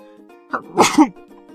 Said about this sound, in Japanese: で、今、くしゃみで入れ歯が取れた。うん、びっくりした、今。